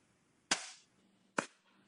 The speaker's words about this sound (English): I forgot to clap, so let me just.